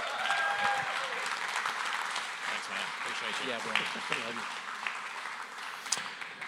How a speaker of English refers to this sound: You guys are going to be absolutely blessed. Let's give him a round of applause, okay?